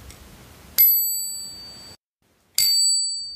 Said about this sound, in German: Und eine neue Klingel habt ihr auch gemacht. Eine Klingel haben wir auch entwickelt